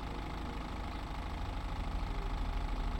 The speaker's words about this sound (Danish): Hun undrede sig over en taxa, der holdt i tomgang på gaden.